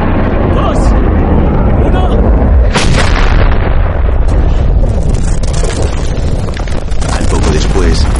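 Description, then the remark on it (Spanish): Loud, dense gunfire and heavy booming blasts during a military attack fill the scene continuously, with a sharp burst near the start, rumbling low end and chaotic crackling throughout, as voices shout underneath. “¡Ataque inminente en 1-5 cierra Todos se colocan encima de la para cubrirlo de los posibles disparos.”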